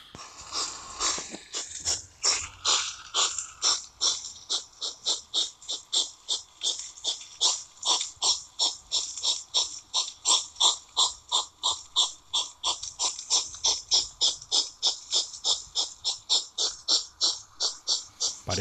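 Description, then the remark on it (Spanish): A common hedgehog, a small forest mammal, huffs and snorts in a fast, steady chug of breathy puffs, two or three a second, fairly loud throughout, with no voices. “Bueno, son una especie de bufidos, eh, de este pequeño animalito también del bosque que muy conocido por todos, que es el erizo común.”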